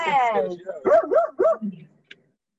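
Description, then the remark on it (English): A dog lets out a long, drawn-out whine, then three quick yappy barks in a row, fairly loud, before falling silent. “It sounds like you have a dog that likes to talk very talkative.”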